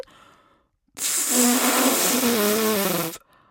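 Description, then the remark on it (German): A single breathy blast of air, about two seconds long, blown through a cucumber with its ends cut off and holes bored into it as a makeshift flute, mostly airy hiss with a faint wavering low tone underneath, fairly loud. “Naja, eigentlich sollte das eine Flöte werden. Aber ich finde, das klingt noch nicht mal wie eine Tröte.”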